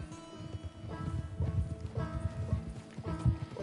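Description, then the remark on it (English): Galloping horse hooves pound out a steady, rapid rhythm, moderately loud, with a sustained musical tone humming beneath the hoofbeats throughout. “Tapping X in time with the horse's gallop will stop at Santa.”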